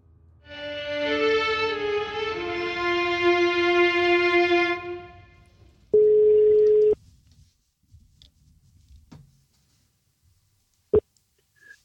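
A telephone call's ringing tone hums steadily for a few seconds, followed by a single loud one-second voicemail beep, then near silence with faint rustles and a sharp click.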